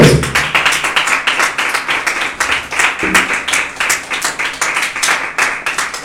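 An audience claps steadily for several seconds as an offering of applause to the Lord, a dense, even wash of many hands with rapid sharp slaps, loud and continuous, with no voices standing out.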